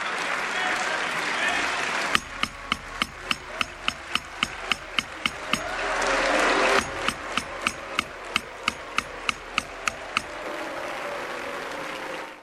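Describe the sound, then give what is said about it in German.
Parliament crowd noise after socialist member Edith Streller's speech on a progressive resolution: a dense wash of applause and booing, the booing from conservatives and reformists, with loud, evenly spaced sharp knocks hammering out a steady beat through the middle, over a murmur of voices. “Wie ihr hören konntet, wurde Edith Streller, die sozialistische Abgeordnete, die den progressiven Beschluss eingebracht hatte, wurde sie auf der einen Seite ausgebuht von den Konservativen und den sogenannten Reformisten”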